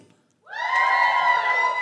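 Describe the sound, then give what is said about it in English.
After a brief silence, a small group of vegans in the audience bursts into loud cheering and whooping, a sustained high-pitched roar of voices that holds steady to the end without dying down. “First of all, give us a cheer if you're a vegan.”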